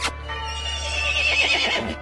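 A horse gives one drawn-out whinny lasting about two seconds, fairly loud, its quavering high pitch riding over a low steady hum, with no one talking.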